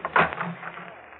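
A wooden connecting door to a bedroom in an old house opens with a short scrape and creak, a brief bump at the start that fades into a faint, dull rustle.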